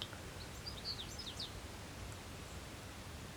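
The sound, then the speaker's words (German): In the evening around 8:15 pm, a bird perched at the top of a spruce sings a quick run of high, twittering chirps in the first second and a half, then only a steady soft outdoor hiss remains. No one speaks. “Und höre dem Vogelgezwitscher zu.”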